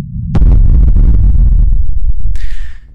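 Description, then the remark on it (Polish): A sudden, massive atomic bomb explosion in a desert at exactly 5:29:45 bursts in and rolls into a deep, sustained, loud rumble, with a hissing high-pitched wash rising near the end before the roar fades. “Dokładnie o godzinie 5 29 i 45 sekund następuje eksplozja, jakiej do tej pory nikt nie widział.”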